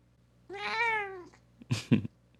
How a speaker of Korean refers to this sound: 평소에 떠들던 고양이와 다른 고양이가 떠들고 있어요. 네. 돌아가면서 얘네들도 제가 고양이를 많이 모시고 있기 때문에 한마디 해.